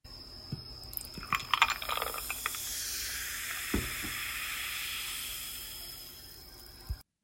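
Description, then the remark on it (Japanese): A fizzy drink is poured into a cup, a brief splashing pour giving way to a steady crackling fizz of bubbles that slowly fades, with a couple of small clinks. “コップに炭酸を注ぐ音”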